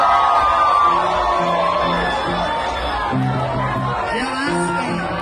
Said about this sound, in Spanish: colmo de los colmos, la gente ahí este... Sí, vuelta loca. Gritando, eh, han de haber sido locos marihuanos los que estaban ahí